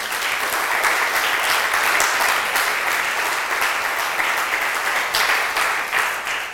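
Steady applause from a crowd, a dense wash of many hands clapping at an even loudness for several seconds, with no voices rising above it.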